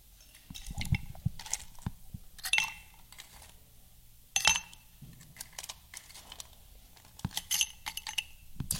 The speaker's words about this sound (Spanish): Y básicamente vas a llenar todo el vaso, el highball. ¿Vas a llenar el vaso de hielos?